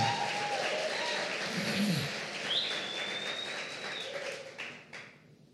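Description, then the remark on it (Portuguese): An audience applauds for Jesus in a steady, dense wash of clapping, with a few shouts and a long high whistle mixed in, before the applause tapers off at the end. “Você podia dar um aplauso a Jesus, fazer um barulho dizer alguma coisa?”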